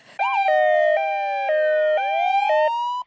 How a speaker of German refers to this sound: Oh, sind das etwa Sirenen? Oh nein. Oh nein, ist das die Sprachpolizei?